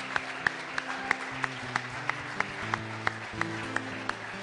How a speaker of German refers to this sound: Und wir heißen euch willkommen. Halleluja. Lass uns ihnen einen kräftigen Jesu-Zentrum Applaus geben.